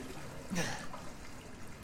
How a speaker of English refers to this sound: Yep, treading in water, what looks like shit water, is hella creepy.